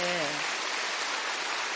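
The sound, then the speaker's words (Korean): A church audience applauds a speaker's father in a dense, steady wash of clapping that holds at an even loudness throughout, with a brief voice heard at the very start. “끝으로 주말마다 목포에서 판교까지 왕복 8시간을 기꺼이 운전하며 8년 동안 함께 교회 와주신 아빠에게 그동안 저 때문에 너무 수고하셨다고 말씀드리고 싶고 박수 한번 쳐요”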